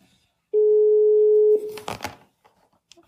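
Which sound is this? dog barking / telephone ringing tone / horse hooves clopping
telephone ringing tone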